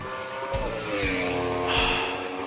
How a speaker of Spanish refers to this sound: Ese es el sonido de lo mejor del motociclismo italiano.